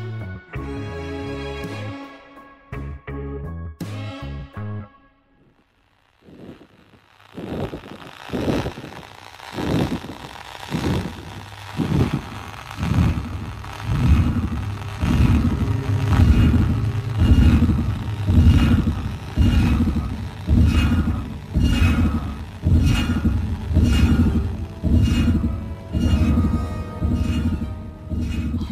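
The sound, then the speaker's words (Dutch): A strange radio signal, said to come from an alien civilization and picked up by radio dishes, comes through as loud, rhythmic pulses of dense static-like noise, beating steadily after a brief droning tonal opening and a short silence. “is aan het luisteren naar ja, het signaal dat de eh, radioantennes achter haar de radioschotels binnenkrijgen”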